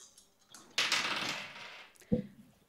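dice being rolled

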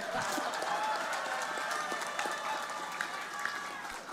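audience clapping

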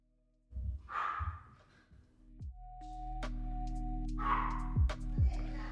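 dog barking in background

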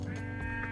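sheep bleating

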